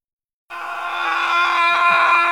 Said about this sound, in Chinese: 一声狂狮般的怒吼